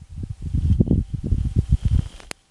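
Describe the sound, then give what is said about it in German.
Wind of a small dust-raising storm on Mars, recorded by the microphone of the Perseverance rover, buffets it in low, rumbling, irregular gusts, steady for two seconds, then a sharp click and sudden silence as the rover sits in the eye of the storm. “Das hat jüngst zufällig einen kleinen Sturm, der etwas Staub aufgewirbelt hat, registriert, wie US-Forscher im Magazin Nature Communications berichten.”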